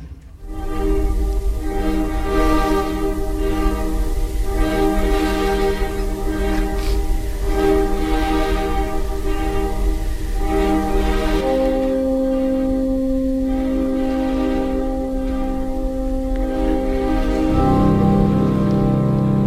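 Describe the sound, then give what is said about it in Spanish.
The slow orchestral opening of a piece depicting a sick man close to death: long, sustained dissonant chords with a bassoon in the low register, shifting harmony a couple of times at a steady, fairly full volume with no voices. “solo con que veáis esos acordes, esos acordes son historia de la música, porque esos acordes son raros, son complejos y quieren describir algo, ¿no?”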